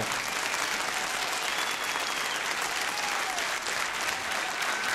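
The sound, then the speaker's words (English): Sustained, loud standing ovation from a public radio audience, a dense wash of clapping that holds steady for the whole stretch with faint cheering mixed in. “Standing ovation from a, from a public radio crowd.”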